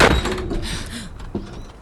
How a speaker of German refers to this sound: Die Pforte ist zugefallen. Ja. Von selbst. Unmöglich. Jemand muss sie geschlossen haben.